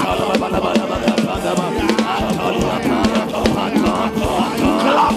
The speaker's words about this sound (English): Begin to clap your hands and pray.